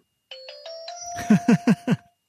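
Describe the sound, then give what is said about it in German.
A bright electronic chime from a Ting children's audio reading pen plays a quick series of stepped tones that ring on, joined by four short, evenly spaced low pulses before fading out. Clear, with no talking. “Ting ist ein, ein Audio-Stick eigentlich so für Kinder, mhm.”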